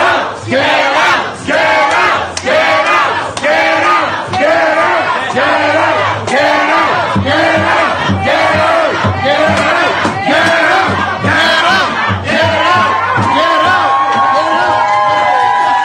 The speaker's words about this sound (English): Meanwhile, also in Canada, an undated video surfaced recently depicting a crowd in a bustling restaurant in Vancouver driving health ministers out of the establishment who were there to enforce COVID restrictions. Get out, get out, get out,